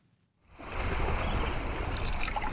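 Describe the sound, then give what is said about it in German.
Water splashes and laps steadily after a brief silent start, oars dipping quietly through a calm water channel in the marshes of southern Iraq, a soft continuous wash of watery sound with no voices. “Nur das leise Plätschern der Ruder im Wasser ist zu hören.”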